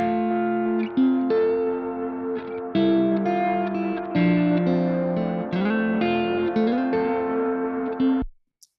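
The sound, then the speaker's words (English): An electric guitar played through an amp stack with a new delay effect, with a distorted, gritty tone, plays a steady run of sustained notes and chords, smeared by delay echoes, loud, ending abruptly after about eight seconds. No one speaks. “And uh, stack signal and the new delay.”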